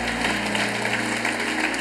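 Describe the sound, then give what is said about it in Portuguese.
A crowd at a worship service applauds for Jesus, clapping steadily in a dense, even patter of many hands at moderate loudness, with no voices standing out. “Você pode dar um aplauso a Jesus?”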